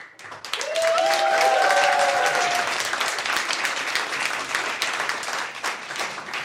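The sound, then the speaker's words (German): A live audience bursts into loud, dense applause for three speakers, holding steady for several seconds, with a brief whistle or cheer rising over the clapping near the start. “So, das lassen wir durchgehen, weil ihr jetzt für uns drei applaudiert.”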